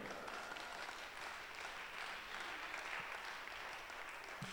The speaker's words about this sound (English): Oh, it's a good place to clap for the Lord.